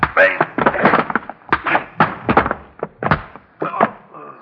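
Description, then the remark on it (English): A scuffle in which a servant beats a man: rapid, irregular thumps and whacks, about a dozen blows over a few seconds, mixed with strained grunts, ending in a heavier thud as the man falls to the floor. “Now pick Mr. Casey up from where he's fallen and throw him out the door.”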